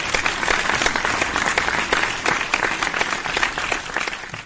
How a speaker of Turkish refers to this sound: E, bir alkış göndermiş olayım ben.